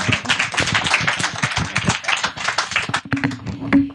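Dense audience applause with many hands clapping in a steady, crowded patter, fairly close and loud throughout, thinning slightly toward the end as a few scattered claps stand out.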